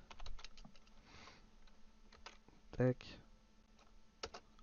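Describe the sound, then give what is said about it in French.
Scattered clicks of typing on a computer keyboard, fairly quiet, as someone copies and pastes text, with a brief burst of faint speech in the background and one louder thump partway through. “Je copie-colle. Ça c'est plus simple pour moi.”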